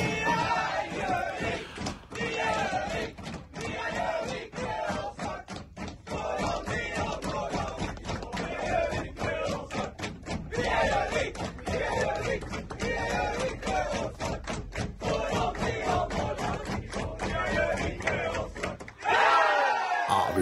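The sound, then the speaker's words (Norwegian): Young men of the Gjøvik team cheer and chant together loudly right after the season's final match, a loss to Sotra, their rowdy voices continuous and overlapping, with claps and thumps punctuating the noise before it cuts off near the end. “unner oss å høre rett og slett eh, Gjøviklin-gutta ah. rett etter kampen, da!”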